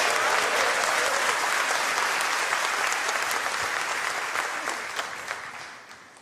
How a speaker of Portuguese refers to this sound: E se você recebe essa palavra, se ponha de pé e dá uma salva de palmas ao nosso Senhor Jesus, daquele glória a Deus.